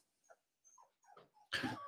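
A male dog whimpers in a few short, high-pitched whines with brief pauses between them, then breaks into a sudden loud, rough burst of sound at the end.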